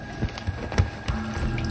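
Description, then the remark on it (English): Splashing in shallow bathtub water as a baby falls face-first into it, a few quick sloshing hits in a row with water churning between them, fairly loud and with no voices. “Miss Lydia smacked her face on the floor of the bathtub, mouth and nose submerged in the shallow bathwater”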